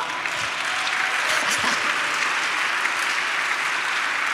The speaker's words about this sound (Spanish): Aplauda, ¿no?